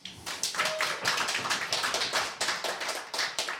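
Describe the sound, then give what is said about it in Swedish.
A small studio audience claps steadily for a few seconds for a guest stepping up to the microphone, the dense overlapping hand claps fairly loud, with no voices over them. “En applåd för henne.”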